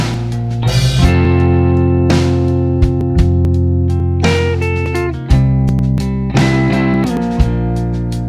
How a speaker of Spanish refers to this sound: Es una rola que ustedes habían pedido. Suena así, a ver si la reconocen.